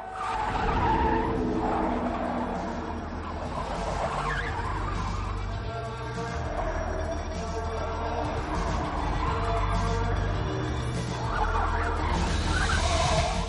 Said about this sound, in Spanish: Por la calle circula un coche con la carrocería cubierta por cientos de bombillas.